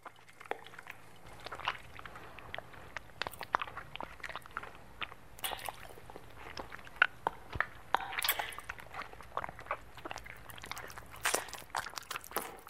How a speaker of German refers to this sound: Also, ich höre so Schmatzgeräusche. Ziemlich feuchte Angelegenheit. Hat auch was Rhythmisches.